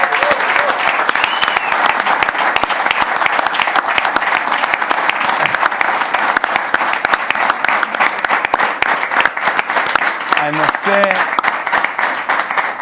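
A large audience applauds loudly and steadily as the show's band is introduced, a dense wash of clapping that fills the whole stretch without letting up, with a few faint voices or cheers mixed in near the end.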